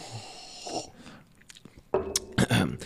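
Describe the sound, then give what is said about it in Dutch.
A sip of water: soft slurping and mouth noises, then a few short, louder swallowing gulps near the end. No one speaks. “even, even, Komt even een slokje water Komt nemen.”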